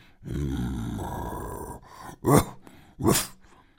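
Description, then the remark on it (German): A deep, rumbling growl from a voice imitating a werewolf lasts over a second, followed by two short, harsh snarling breaths. No words are spoken. “knurrte der Wehrwolf.”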